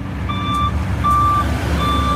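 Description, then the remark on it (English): A construction truck at road work sounds its reversing alarm: three steady, evenly spaced beeps over a continuous low engine rumble, fairly loud, with no voices. “there's road work, which might mean more people moving to the area.”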